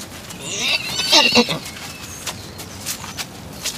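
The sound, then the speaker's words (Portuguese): A horse whinnies in a shrill, wavering burst, followed by soft scattered hoof thuds and shuffling movement on the ground as it slowly approaches a person from behind. “um dos cavalos tinha chegado devagar por trás da Letícia”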